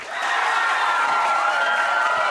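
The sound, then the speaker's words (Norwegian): A crowd of people clapping together for the warehouse crew of Retromessa, a dense, steady wash of applause that swells in quickly and holds at an even level for a couple of seconds, with no voices on top. “applaus!”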